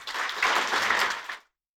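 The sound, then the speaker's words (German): A crowd breaks into applause welcoming six people, a dense wash of many hands clapping at steady volume for over a second before it cuts off abruptly into silence. No voices are heard. “Gebt ihnen einen warmen Applaus.”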